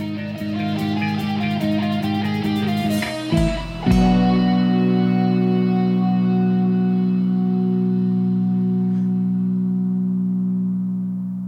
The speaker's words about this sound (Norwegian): der er det en gong. Ja, det er, en gong som, som ligger der. Som synger ut, ja. ja. Men du hører ikke slaget så godt. Altså Nei, de har fada den opp og, og, latt den ringe ut.